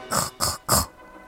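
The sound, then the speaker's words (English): Three quick, breathy pig snorts from the cartoon character Daddy Pig, in an even rhythm. Each is a short noisy burst with a bright hissing edge, followed by a faint quiet tail. “Oh, there you go, snorts Daddy Pig.”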